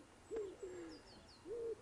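Soft, low cooing of a common wood pigeon: three hollow, breathy hoots in a slow rhythm, with faint higher bird chirps in the background and no talking.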